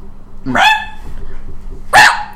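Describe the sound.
A person imitates the pained yelp of a kicked kitten twice, two short, sharp, high-pitched cries about a second and a half apart, fairly loud, with a faint background hum between them.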